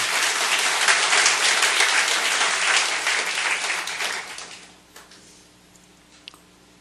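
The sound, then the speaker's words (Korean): An audience applauds God in a loud, dense wash of clapping that holds steady for about four seconds, then thins out and fades, leaving a few scattered claps and faint knocks. “우리 하나님께 더 큰 박수 올려 드리십시오 아멘.”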